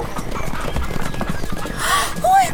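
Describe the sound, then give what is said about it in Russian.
Hooves of horses ridden by Horde horsemen clip-clop in a steady rhythm, followed by a loud horse whinny rising near the end, with faint voices in the background. “Эй, ребята, осторожнее! Под копыта не попадите”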